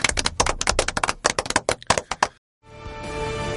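A small group claps in quick, uneven bursts for a little over two seconds, then stops abruptly; after a brief silence a steady, sustained musical tone begins.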